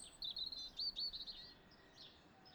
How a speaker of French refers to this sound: Puis je me suis un peu promenée dans le parc, il y avait tout le petit oiseau.